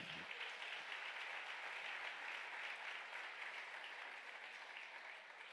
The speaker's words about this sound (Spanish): Vamos, den un aplauso fuerte.